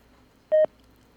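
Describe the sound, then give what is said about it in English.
A single short electronic telephone tone from an incoming call, a brief steady beep that stands out loudly against a quiet background, with no one talking. “It's already, it's already ringing.”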